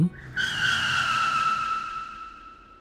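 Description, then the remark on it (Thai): A loud, sustained screech of car tires skidding on pavement, starting abruptly and holding a steady high squeal for about two seconds before gradually fading, as a car brakes hard on meeting an oncoming car in poor visibility. No voices. “เสียงล้อรถบดพื้นดังสนั่นในวินาทีต่อมา ทัศนวิสัยที่เลวร้ายทำให้แม่ไม่เห็นว่ามีรถคันหนึ่งวิ่งสวนทางมา และรถคันนั้นก็ไม่เห็นรถของแม่เช่นเดียวกัน กว่าที่รถทั้งสองคันจะเห็นกันและกัน ก็เป็นระยะที่กระชั้นชิดมากแล้ว รถคันนั้นเลือกที่จะเบรก”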